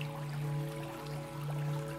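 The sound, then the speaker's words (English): Steady, soft rush of flowing river water, continuous and fairly quiet, with a low sustained hum running underneath throughout. “River flows.”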